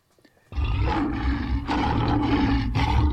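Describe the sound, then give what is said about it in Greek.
A lion roars loudly, bursting in abruptly after a brief quiet moment and holding a deep, rumbling growl with a few surging swells for about three seconds. “Βέβαια, όχι ότι δεν ξέρουν να λιοντάρια οι άνθρωποι εκεί.”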